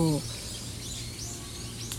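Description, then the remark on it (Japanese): Faint birds chirp now and then over a steady outdoor background hum in a park on a sunny late-autumn day, with a brief bit of a voice at the very start. “えー、鳥の声とか聞こえてますでしょうかねすごい今日も爽やかなねえー、もう冬って言っていいんですかね、まあ、晩秋の日ですけどもう本当に太陽の光と”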